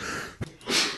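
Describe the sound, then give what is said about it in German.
A single sneeze: a short, sharp burst followed by a breathy, hissing rush of air, moderately loud, with no talking. “Gesundheit.”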